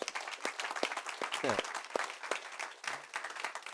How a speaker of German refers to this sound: Geben wir den Leuten zu Hause einen kraftvollen Applaus